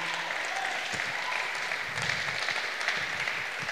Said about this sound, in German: Das war jetzt in der Schweiz war das ein mittelmäßiger Applaus. Wollen wir mal einen riesengroßen Applaus geben, den beiden. Ähm, riesengroßen Applaus, come on.